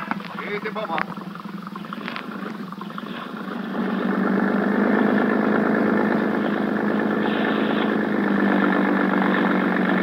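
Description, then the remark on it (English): A motorboat engine of a boat at a harbor police dock runs steadily at night, a low droning rumble that grows louder and fuller after a few seconds and keeps going without a break. “When Sergeant Malvar finally arrived at the harbor police dock, a boat was ready for us.”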